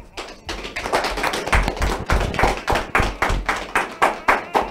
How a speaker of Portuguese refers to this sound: Vamos agradecer isso com uma salva de palmas?